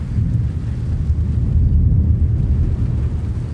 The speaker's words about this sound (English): What begins as a drizzle turns into a downpour, drumming rhythmically on a metal roof. Steve Peters recorded these sounds near the foothills of the Manzano Mountains in central New Mexico.